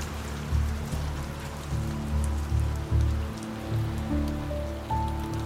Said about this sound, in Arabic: بلش المطر